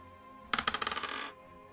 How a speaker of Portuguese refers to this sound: Rola um D20,